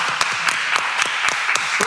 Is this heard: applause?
yes